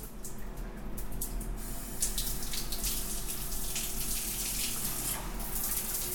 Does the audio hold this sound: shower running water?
yes